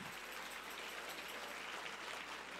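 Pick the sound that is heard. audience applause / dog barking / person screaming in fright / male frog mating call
audience applause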